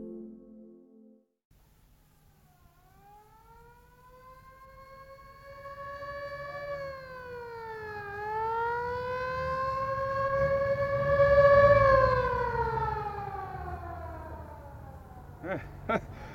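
An ambulance siren wails in long rising and falling sweeps, swelling louder as it approaches over a low traffic rumble, then fading away.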